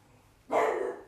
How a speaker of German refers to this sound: Was siehst du, Spike? Alles gut? Der Hund Spike hatte draußen etwas gesehen und bellte.